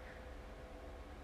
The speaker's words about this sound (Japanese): 扇風機でございます。いや、もう、ごめん、許して。もう、これはもうそういうの気にしないから。すまん。